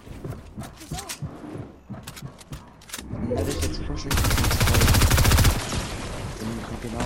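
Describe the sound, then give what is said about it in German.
Rapid automatic gunfire from a video game, another player spraying from the side, rattles in a loud, sustained burst after scattered earlier shots, with game noise and faint voices around it. “der andere sprayt mit Explosionsschwert von der Seite.”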